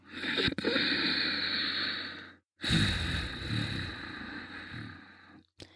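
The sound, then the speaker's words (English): Two long, steady Ujjayi breaths through the nose with the mouth closed and the throat toned, an inhale then an exhale, each a rushing hiss with a slight throaty rasp, separated by a brief pause, with no talking. “The breath will still make a noise coming in and out of the nose. This is the Ujjayi breath.”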